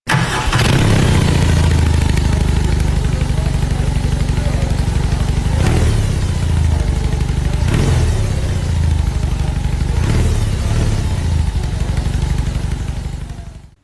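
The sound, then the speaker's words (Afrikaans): A BMW R18 motorcycle engine fires up and keeps running, a loud, deep, steady rumble throughout with a few sharper revs and mechanical clatter along the way. “maar luister gou hoe klink hierdie R18 en dan hoor jy nou of jy saamstem.”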